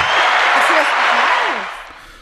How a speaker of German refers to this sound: Das war Applaus, ja. Weil du hast den Volltreffer gelandet.